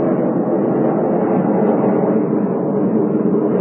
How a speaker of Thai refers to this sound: ตอนนี้มีแต่เสียงเครื่องบิน